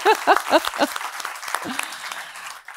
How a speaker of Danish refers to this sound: Lad også lige give dem en hånd. Yeah!